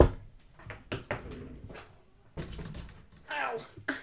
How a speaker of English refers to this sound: Let me knock on this fake wood.